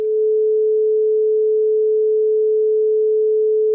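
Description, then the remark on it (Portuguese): A steady pure tuning tone at concert A, held unchanging for nearly four seconds. It is loud and clean, with no voices or other sounds around it. “Já agora, vamos ouvir. Esta é a 440.”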